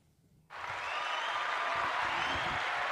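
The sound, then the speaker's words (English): A round of applause starts abruptly after a brief quiet moment, then holds as a dense, steady wash of many hands clapping at an even loudness until the end, with no voices. “this man just put on the round of applause.”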